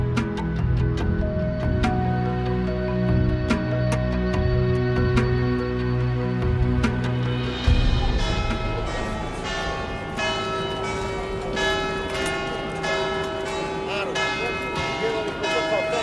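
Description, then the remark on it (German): Heavy church bells of St Mark's bell tower in Venice peal continuously, their deep overlapping strikes ringing out in a loud, rich wash of tones with a steady, rolling rhythm and lingering resonance. “Das, meine Lieben, ist das Glockenläuten des berühmten Markusturms in Venedig.”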